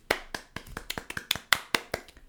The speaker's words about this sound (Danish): Klap, Smukt. klap, klapsalve til dig. Smukt. Smukt. Det var godt klaret.